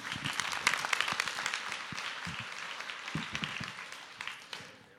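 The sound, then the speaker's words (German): A crowd on a stage event applauds steadily for about five seconds to welcome a young man onto the stage, a dense wash of many hands clapping with a few sharper claps standing out, then fading slightly toward the end. “Einen Applaus auf dieser Bühne begrüßen, der das erlebt hat.”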